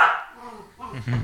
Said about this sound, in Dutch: Ja, dat is even de hond die aan het, op de achtergrond aan het spelen is. de mascotte.